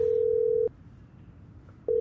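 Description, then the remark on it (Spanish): A steady electronic ringback tone on a phone line during a call to the Roberts factory: one long burst that stops, a pause of about a second, then the tone starting again, clear with no voices. “Eh, está sonando, le dije tímidamente.”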